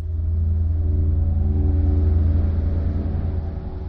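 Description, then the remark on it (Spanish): Heavy tank engines of two battalions of the Soviet general Pavlov's tanks rumble and rev as they climb up to the castle of Torija in the Alcarria, a deep, loud, continuous growl that swells slightly midway and holds steady, with no voices. “Dos batallones de carros del general soviético suben hasta el castillo de Torija, auténtica puerta de la Alcarria.”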